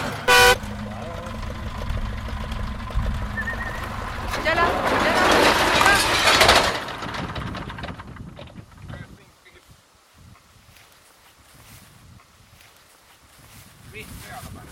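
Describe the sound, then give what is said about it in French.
A single short, loud vehicle horn honk, given to confirm a precision machine maneuver guided by head and hand signals, sounds right at the start, followed by engine rumble, a swelling rush of machinery noise, and faint voices before things quiet down. “On valide à coup de klaxon.”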